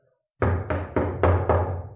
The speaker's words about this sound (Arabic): مين اللي بيخبط على بيت القاضي